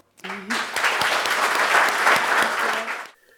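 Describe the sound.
An audience breaks into sustained applause for a guest author, a dense steady wash of clapping lasting about three seconds before stopping abruptly, with a brief voice audible at the start and near the end.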